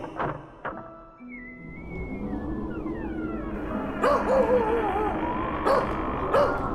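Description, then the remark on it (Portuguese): A dog named Azatot, tied by its collar and barking at the barn on a cold day, barks in several sharp, loud bursts spaced a second or so apart, with a thin whining whimper rising between them, with no one talking. “Preciso soltar o cão que está a se acabar preso à coleira.”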